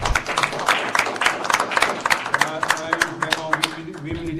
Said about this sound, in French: Moi, je demande juste des applaudissements pour ça.